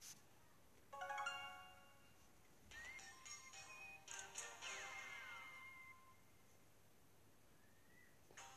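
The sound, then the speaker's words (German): A phone gives off several bursts of electronic beeping and chiming tones, some sweeping downward, spaced a second or two apart. The sound is faint, with no talking. “Ähm, piept das Hexe die ganze Zeit. Ich hoffe, man hört das nicht so super laut in der Aufnahme.”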